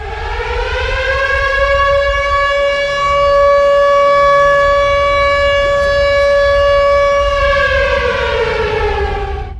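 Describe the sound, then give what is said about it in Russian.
A civil defense warning siren wails loudly on its own, rising to a steady, sustained tone, holding it for several seconds, then starting to wind down in pitch near the end. “нет, а даже должен же сигнал быть этот. Внимание всем должен быть.”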